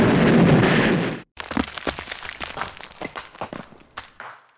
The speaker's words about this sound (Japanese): な、な、なんで爆発するの都合が悪くなるといつもこうだ。まったくこの番組は定期定期的に。